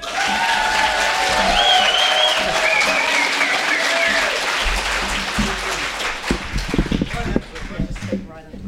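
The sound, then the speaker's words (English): An audience welcomes a speaker from the farming community with sustained applause, some whistles and cheers, loud and full for several seconds before thinning out into scattered claps near the end. “So put your hands together”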